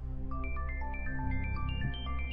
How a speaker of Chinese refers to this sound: 这时手机铃声响起。